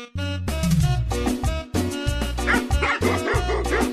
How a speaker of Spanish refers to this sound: El otro día andaba un cuate en el parque. Traía a su perro, ¿verdad? Ay, guau, qué hermoso. Ahí andaba con su perro.